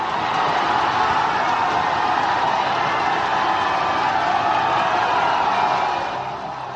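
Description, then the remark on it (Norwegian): A dense, steady roar of a large crowd cheering in the streets of India to celebrate the moon landing, loud and continuous for several seconds before easing off slightly at the end. “Månelandingen ble feiret med fyrverkeri og jubel i gatene, og var en enorm sak i India.”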